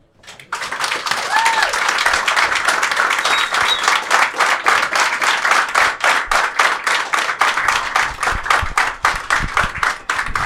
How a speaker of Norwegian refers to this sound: Så jeg syns vi skal gi disse to folka en god applaus.